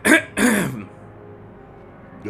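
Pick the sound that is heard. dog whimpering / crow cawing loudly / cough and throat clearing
cough and throat clearing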